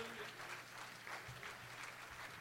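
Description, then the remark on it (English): A church audience claps their hands to the Lord, a dense, steady wash of many overlapping claps sustained throughout, with a faint low hum underneath. “Let's clap our hands to the Lord tonight, church.”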